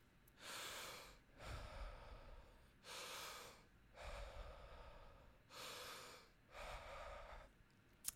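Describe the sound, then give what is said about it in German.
Steady, audible breathing in a wave-like breathing method, exhaling again as soon as nearly full and inhaling again when nearly empty, inhales and exhales flowing one into the next without pause, about three full breath cycles in an even, wave-like rhythm with no talking. “wie so eine Welle ein- und ausatmen. Wenn man fast voll ist, atmet man gleich wieder aus.”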